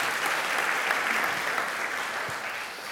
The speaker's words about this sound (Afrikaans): Geef hulle lekker hande klap toe. Dankie julle.